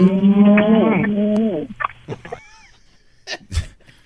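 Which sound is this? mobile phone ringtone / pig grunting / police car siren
pig grunting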